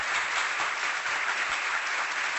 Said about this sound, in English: There you have it, ladies and gentlemen, the latest from Alyssa Milano and that most trusted site, the Babylon Bee. Let's give them a roaring round of applause.